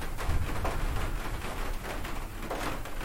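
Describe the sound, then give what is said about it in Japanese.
Steady rain patters on the thin roof of a garden room during a thunderstorm, a dense, light, slightly hollow tapping that continues without pause, with a low rumble underneath and no voices. “このね軽い音でペタペタ言ってるのはあのガーデンルームのね天井に落ちる雨音ですすごいよ空光りまくってるよすっごいね雷雨雷雨です”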